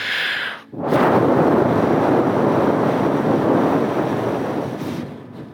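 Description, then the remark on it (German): A sustained breath blown straight into a microphone toward the people, a loud rushing wind-like roar lasting several seconds after a brief pause, with no talking, as the speaker blows on the people while calling on them to receive the Holy Spirit. “habe ich einfach nach neuen Wegen gesucht, den Menschen zu dienen und habe mich entschieden, die Menschen anzublasen.”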